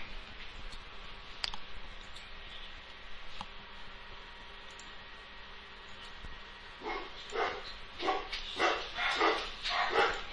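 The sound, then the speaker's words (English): After several seconds of near-quiet with a few faint clicks, a dog starts barking in a rapid string of six or seven sharp barks, moderately loud, with no one talking. “there goes the dog, right?”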